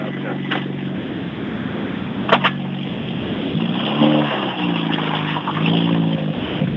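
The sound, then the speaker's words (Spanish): The engine of rally car number 14 revs hard and loud as it starts its run, its pitch rising and falling through several throttle blips before pulling away, with a couple of sharp pops along the way. “Arranca ya el 14.”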